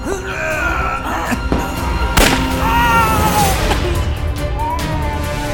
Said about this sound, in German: Der Schuss löste sich aus der Pistole und traf Tommy in den Bauch.